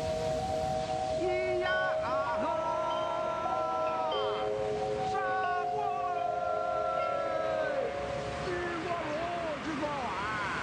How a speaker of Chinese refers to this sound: 所以我就经常骑车路过电报大楼，然后正好会听到那个啊，每个小时它会出那个钟声，那个东方红特别破，呃，就是失真的喇叭，就是假的钟声。